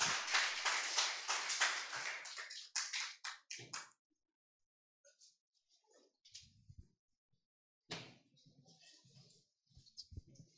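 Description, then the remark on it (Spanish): A crowd at Transformación y Vida in San Juan del Río applauds to God, bursting out loud, many hands clapping steadily for about four seconds before tapering off, followed by a few scattered faint sounds and brief murmuring voices. “Así que sin más, den un aplauso por favor a Dios”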